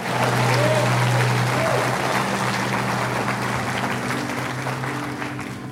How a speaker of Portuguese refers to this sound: Dê uma salva de palmas a Jesus e dá um glória, aleluia.